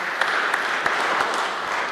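An audience claps steadily for the worship team during a morning church service, a dense wash of many hands with a few sharper individual claps popping out, sustained and fairly loud throughout with no talking.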